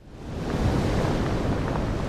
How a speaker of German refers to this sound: Hier stehe ich und starre aufs Meer. Auf die wuchtigen Wellen, die sich etwa 20 Meter vor dem Strand aufbäumen und ans Ufer schlagen